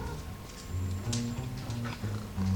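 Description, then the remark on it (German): Jealous cats making low, drawn-out yowling and growling sounds, a series of sustained moaning tones that shift in pitch, steady and fairly loud with no talking. “Und die Katzen sind ja auch sehr, die sind ja ziemlich eifersüchtig, hört man ja.”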